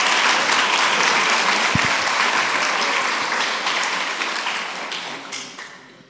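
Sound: audience applause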